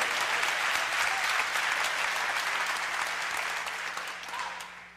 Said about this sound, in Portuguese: Você está aí, dá uma salva de palmas ao Senhor.